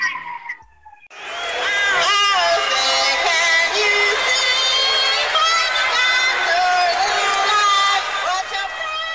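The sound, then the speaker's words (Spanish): A large crowd boos and jeers at Roseanne singing the national anthem at a San Diego Padres event in 1990: after a brief quieter opening, a loud, sustained wall of many voices rises and holds steady to the end. “Es por los abucheos.”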